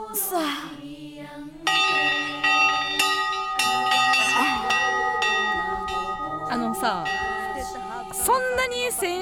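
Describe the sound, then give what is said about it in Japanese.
Bells ring out with loud, sustained, shimmering tones, several strikes layered into one long resonant chime that hangs in the air, with a voice briefly audible over the ringing. “でも心配心配するな来週からはまた新しい時代の鐘の音が鳴り響くはず。”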